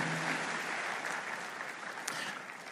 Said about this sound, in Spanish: pero hoy traje una invitada muy especial que me gustaría que la pudieran recibir con un muy fuerte aplauso.